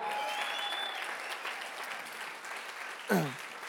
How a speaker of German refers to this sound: Komm, wir geben ihr nochmal einen Applaus.